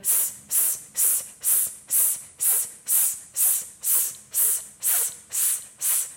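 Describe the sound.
About a dozen short, sharp hissing 'S' sounds blown out by a person during a breathing exercise, in a quick, steady rhythm, each bright and airy with brief gaps between, and no talking.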